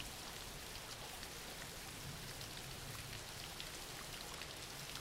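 Steady rain falling continuously, a dense hiss of countless drops with faint pattering ticks scattered through it, even and unbroken for the whole stretch with no voices.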